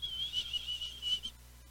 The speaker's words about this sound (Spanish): Tú ves todo eso, entonces ese es el viento. O si no oyes el pitito del viento.